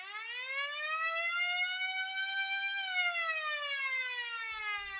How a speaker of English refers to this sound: And there's the siren to end our period.